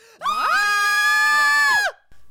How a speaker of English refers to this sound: Oh yeah, you have to scream. Ready? Uh, On like, three.